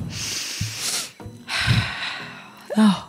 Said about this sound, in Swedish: Men du, nu ska jag bara andas ett djupt andetag.